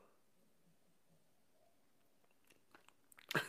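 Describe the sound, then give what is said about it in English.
Near silence gives way to a few soft mouth clicks, then a loud slurping sip of coffee from a mug at the very end, with no talking. “It's called the simultaneous sip, and happens now.”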